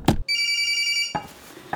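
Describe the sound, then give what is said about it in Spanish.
A door intercom buzzer rings once, a steady, bright electronic tone lasting about a second, fairly loud, bracketed by sharp clicks and knocks. “Suena el portero.”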